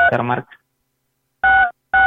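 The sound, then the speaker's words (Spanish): A brief burst of voice is followed by two distinct cellphone keypad tones, each a steady dual-pitched beep lasting about a quarter second, fairly loud with a short gap between them. “Licenciado, ahí nada más le pido, por favor, creo que se está aplanando su celular, pero eh, la verdad está muy fuerte este ruido.”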